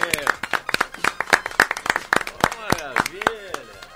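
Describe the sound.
A round of applause: many sharp, irregular claps from several people, fairly loud and steady for the whole stretch, with voices chattering and calling out beneath the clapping.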